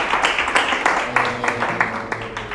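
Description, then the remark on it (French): An audience applauds itself for contributing to a discussion, clapping together in a steady, dense patter of many hands, moderately loud and sustained, with some faint voices mixed underneath. “Et pour cela aussi j'aimerais que vous, vous applaudissez pour vous-même d'avoir contribué euh,”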